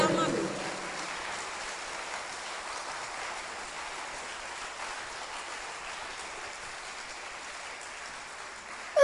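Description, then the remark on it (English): A crowd claps hands together in a dense, steady wash of applause that holds at an even loudness for several seconds, with a brief low voice at the very start. “Look, clap your hands is a good way.”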